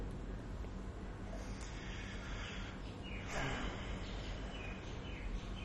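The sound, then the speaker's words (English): A few faint bird chirps come through a steady, noisy outdoor background, including a short downward-sweeping call partway through. There is no talking. “Cute bird, not so cute horn.”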